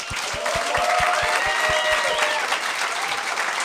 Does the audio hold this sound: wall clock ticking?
no